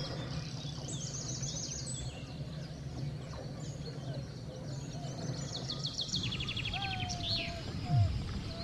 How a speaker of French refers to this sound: Peu à peu, le concert des oiseaux remplaçait le silence de la nature.